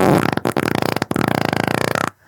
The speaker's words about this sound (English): And all you got to do is uh, it's a little game that we like to call Name That Fart.